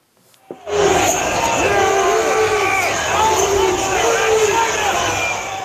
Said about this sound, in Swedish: I otaliga videor och foton kan man se och höra hur demonstranterna stormar kongressbyggnaden och hur de far fram inne i byggnaden, förstör och stjäl saker.